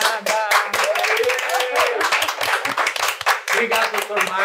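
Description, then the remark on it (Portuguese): A crowd applauds the guests of a show steadily with dense, continuous clapping, while several voices cheer and call out over it throughout. “Uma sala de palmas.”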